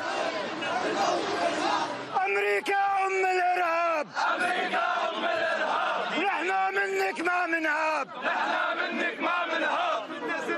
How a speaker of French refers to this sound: Dans la foule chauffée à blanc, nombreux sont les Libanais déterminés à prendre les armes pour la Palestine.